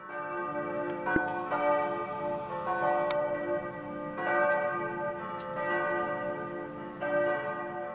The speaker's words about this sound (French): On vient d'entendre les cloches de Pâques de l'église de dolbeau euh, mistassini